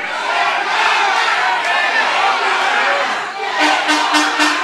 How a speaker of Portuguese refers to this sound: é muito importante, porque não sou eu que estou dizendo, é o povo da cidade de Adema que está aqui reunido pedindo para revogar a taxa do lixo.